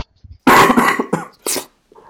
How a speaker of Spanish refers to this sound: ya no toses, ya no vayas a toser, por favor,